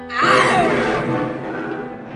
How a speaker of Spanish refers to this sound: Las palabras de Romualdo se clavaron como un aguijón en el corazón del estudiante, quien dejó escapar un desgarrador rugido.